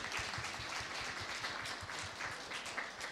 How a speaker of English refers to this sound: Maybe we could give these guys a wee clap when they, they finish reading.